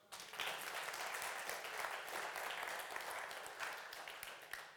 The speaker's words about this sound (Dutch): Applaus voor goedheid en genade.